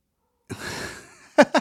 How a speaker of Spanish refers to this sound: ¿te escuchó el sorbito? Sí, se escuchó el sorbito.